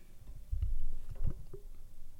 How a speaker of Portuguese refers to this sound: E está com soluços, pá. Isto não, não sei se é normal, malta. Os, os cães bebés têm assim tantos soluços. Ela está sempre. Mas são soluços.